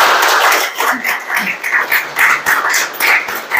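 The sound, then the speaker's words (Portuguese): An audience breaks into steady applause, many hands clapping at once in a dense, crackling wash that holds at a fairly even loudness throughout. “Então, dá uma sala de palmas e acredita”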